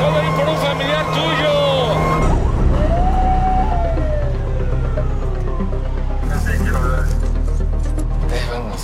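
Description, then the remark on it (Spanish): An ambulance siren wails with a rising and falling tone over steady, loud traffic and engine rumble, with indistinct voices mixed into the noisy street scene. “Ahora tenemos que agarrar el bueno. una ambulancia.”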